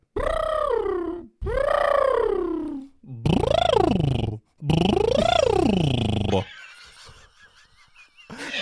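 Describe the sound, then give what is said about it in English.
Four loud, buzzy lip trills, each a voice mimicking a car revving up, with pitch sweeping upward and then falling back; the later trills rise more steeply. Quieter, fainter sounds follow. “So our lip trill is just literally you can imagine like you're accelerating a car.”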